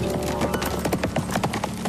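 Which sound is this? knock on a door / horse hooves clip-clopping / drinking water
horse hooves clip-clopping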